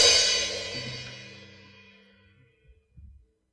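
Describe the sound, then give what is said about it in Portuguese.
A single cymbal crash rings out loud, its bright shimmering wash slowly fading over a couple of seconds, followed by a few faint low thumps. “E já que nós temos um prato aqui, eu vou permitir que vocês entendam um pouco mais o que Paulo está dizendo.”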